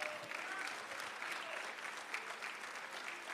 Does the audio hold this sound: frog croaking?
no